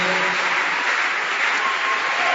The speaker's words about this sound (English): Put your hands together for such a great man. Put your hands together.